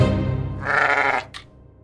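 A sheep lets out one loud, wavering bleat lasting about a second, followed by a short fading catch at the end, with no talking.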